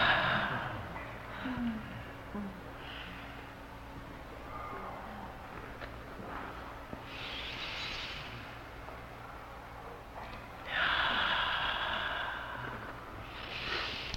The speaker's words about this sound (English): Yeah, yawn.